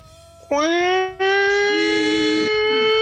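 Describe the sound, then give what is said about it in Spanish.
A loud tsunami warning siren at a beach in Nicaragua, sounded around midnight after an earthquake, swells up abruptly and holds a steady, harmonically rich wail, dipping briefly before resuming, with faint voices murmuring underneath. “una vez estaba en una playa en Nicaragua ajá y adivina qué escuchamos la alarma de tsunami loco”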